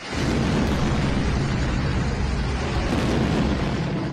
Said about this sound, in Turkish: Saatler gece yarısını gösterdiğinde Gence kentindeki bir caddede Türkiye ve Azerbaycan bayraklarının altında bir adam yürüyordu. Tam o sırada caddenin karşısındaki bir binaya Ermenistan füzesi isabet etti.